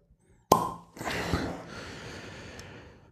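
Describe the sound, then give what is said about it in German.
A good-quality natural cork pulls free from a bottle of 2018 Chenin Blanc with one sharp pop, followed by a few seconds of soft, breathy rustling. No one speaks. “Ja, ist ein Kork, ist Naturkork. Gucken wir gleich, ob das ein Presskork ist.”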